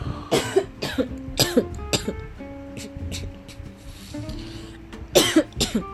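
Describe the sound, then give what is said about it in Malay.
A person coughs repeatedly: three sharp, hacking coughs close together at the start, a quieter stretch with a faint steady tonal background, then another burst of several coughs near the end. “Tak, saya sekarang ni ambil Suara you batuk Because I want to say, say something tengah batuk kan So you batuk”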